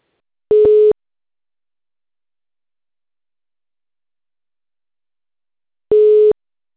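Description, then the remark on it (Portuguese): A telephone ringing tone heard while a surprise phone call connects: two short, steady electronic beeps separated by about five seconds of silence, clear and moderately loud, with no one speaking. “E hoje a gente vai fazer uma ligação surpresa.”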